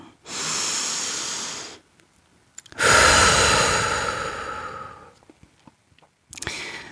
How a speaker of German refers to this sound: Guck mal, mein Atem geht bis zu meinem großen Fußzeh und deine. Also hier auch bewusst immer wieder atmen.